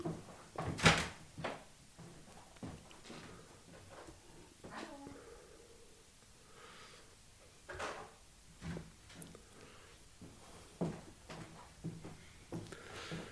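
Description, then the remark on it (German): A door is opened and later closed, with a sharp clunk near the start followed by scattered softer knocks and handling noises against a quiet background. “Muss man ganz kurz aufmachen?”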